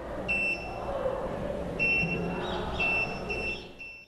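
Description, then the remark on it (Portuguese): A small electronic firefighter locator alarm, one of a pair of compact devices worn by firefighters, gives off shrill, high-pitched beeps in short repeated bursts as the two wearers approach each other, fairly loud, over a steady rumble of background noise. “À medida que eles se aproximam, o alarme soa.”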